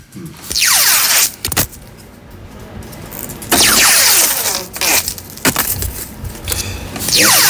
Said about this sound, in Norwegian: det er Holtsen som går på ski. Ja! Jeg feller ski, da?